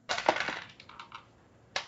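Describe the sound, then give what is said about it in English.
Three dice roll across a hard surface, landing on five, one and three: a quick burst of sharp clattering clicks, a few lighter rattles as they settle, then one last click. No voices. “So let's make it a demons roll with three dice.”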